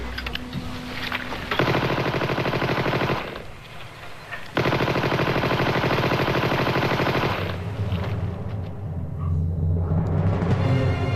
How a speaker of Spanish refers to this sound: Sus pies iban cubiertos con telas rotas aunque sus piernas le sostuvieron hasta el final, hasta que se escuchó el estruendo del fusilamiento.